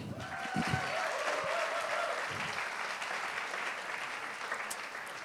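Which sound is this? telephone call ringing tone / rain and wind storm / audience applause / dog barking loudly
audience applause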